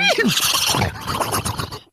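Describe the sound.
A person imitates a horse's whinny with a breathy, wavering neigh that starts with a rising squeal and trails into a rough, fluttering snort, loud for about two seconds.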